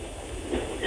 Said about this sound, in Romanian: Vă sun tocmai de pe teritoriul Marii Britanii. Uh, cer scuze pentru zgomotele de fond, dar conduc. Foarte bine, mergi uh, încet. Da, mă duc încet, regulamentar.